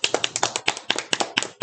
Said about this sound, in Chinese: 我们就直接。掌声欢迎我们今天的来宾